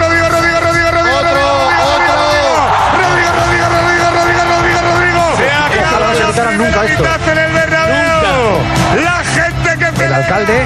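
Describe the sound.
A large crowd of fans chants "campeones, campeones" and cheers loudly and continuously, many voices overlapping in a dense, celebratory roar that never lets up.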